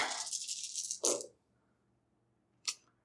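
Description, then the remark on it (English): Dice rattle briskly for about a second, then clatter down with a sharp clack, followed by a quiet pause and one more brief click; the dice are rolled for spell damage. No one speaks. “Okay, excellent roll damage.”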